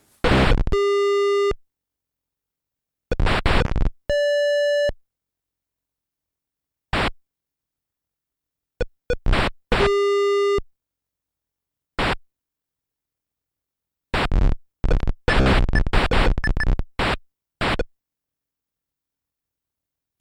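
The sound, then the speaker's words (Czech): Blocky electronic bleeps and buzzy noise bursts from an old Atari ice hockey video game, coming in short separated clusters with silent gaps, fairly loud and with no one talking. “Pustím vám teď ukázku z gameplaye, kde byste asi podle zvuku typovali klidně nějakou staričkou arkádu nebo ježdění tančíky a ono vydá, je to hokej.”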